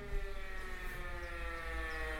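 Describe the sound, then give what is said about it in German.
A long, sustained football club siren (the VfB siren of the Bundesliga) wails steadily with layered droning tones and a heavy low rumble, loud and continuous throughout with no voices. “Hey, wie lange ist diese Sirene”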